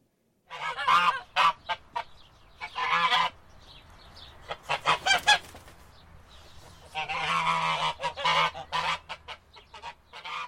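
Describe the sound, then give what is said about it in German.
A goose named Schnatterbix, living on a large farm in a village a few kilometres from Augsburg, honks and cackles in loud, rapid bursts, with a short quieter pause in the middle before another long stretch of insistent honking. No one speaks. “Hallo, liebe Kinder, ich bin die Gans Schnatterbix so haben mich meine Besitzer genannt, weil ich ständig schnattere.”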